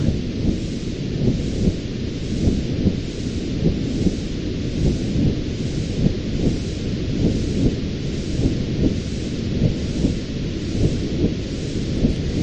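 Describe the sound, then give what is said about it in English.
A womb-sound white noise: a steady, muffled low rumbling whoosh that swells gently about once a second, continuous and fairly loud, with no voices. “It's actually really calming, the womb sound.”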